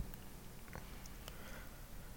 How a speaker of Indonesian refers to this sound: Aku rasa itu cukup untuk membuat kucing ini mendengkur dan melipat telinganya, lalu meringkuk di antara kedua kakimu.